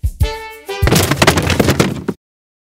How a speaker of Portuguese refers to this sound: Eu quebro a mesa.